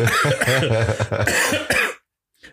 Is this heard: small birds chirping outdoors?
no